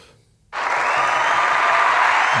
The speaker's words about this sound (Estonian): Sorry ma armastan seda soundboard'i. Äh, kuhu me jõudnud, te panite sedasama publiku aplausi siis, kui see naine tuli rääkima või?